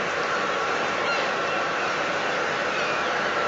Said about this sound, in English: And seagulls. And you can hear the sea over there.